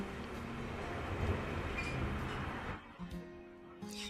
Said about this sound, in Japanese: 意外と外の車の音が入っちゃってますね。このマイクがいいから。待って。マイクの設定を変えても、あダメですね。ダメだ。これで一番いい。騒がしいか。